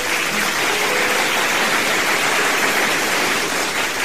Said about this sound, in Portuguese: Palmas pro Daniel, viu, gente?